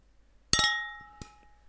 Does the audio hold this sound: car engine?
no